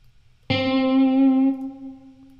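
A loud electric guitar note, played with chorus and atmosphere effects, strikes sharply and rings out with a shimmering, chorused, spacious tone, sustaining for about a second before fading into a lingering wash.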